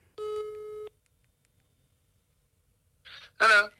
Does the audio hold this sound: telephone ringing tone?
yes